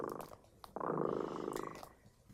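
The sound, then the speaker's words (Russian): The cat Kot Dremota purrs in a steady, low, buzzing rumble that runs for over a second after a few soft rustling sounds, then fades gently; no one speaks. “Кот Дремота запел свою песенку.”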